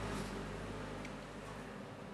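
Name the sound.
truck passing by outside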